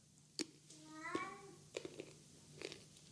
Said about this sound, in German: Ja, der, der Kater ist gerade zu hören. Ja, ich habe ihn gehört. Ja, es gab nämlich Fressen und äh, danach muss er immer mal kurz die Mauzer rauslassen. er muss die Mauzer immer rauslassen.